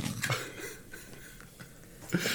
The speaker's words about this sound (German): vom Apfel abbeißt, dann klingt es so, als würde ein Pferd den, den ganzen Apfel essen.